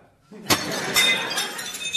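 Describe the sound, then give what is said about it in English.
A glass salad dressing bottle smashes with a sharp crash, followed by a spray of tinkling shards scattering and settling over the next second or so. “oh, sorry, I, I just smashed the salad dressing.”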